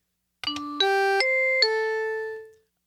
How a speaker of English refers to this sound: Have you ever watched old TV shows and, like, on NBC, they got that thing they play? It's like a xylophone. But you know what? You know what you're watching because it has that sound? Well, this is the sound for the Happy Daily.